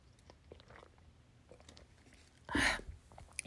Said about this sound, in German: Ich trinke nochmal einen Schluck.